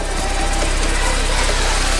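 A Jeep Cherokee engine running at a steady idle, a loud continuous rumble with a faint, even knocking pulse throughout and no voices.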